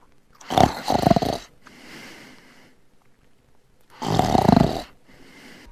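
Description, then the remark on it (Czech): Two loud, rasping snores about three seconds apart, each followed by a softer, breathy exhale, with quiet between them and no talking. “ale chrápání samotné, to je jenom kosmetický přírodní úkaz, který ruší spolu spáče, ale problém je v tom, když mezi tím ten člověk ještě nedýchá, když má pauzy v dýchání, tak to už k nám patří určitě.”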